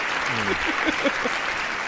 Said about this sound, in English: Round of applause for the seniors.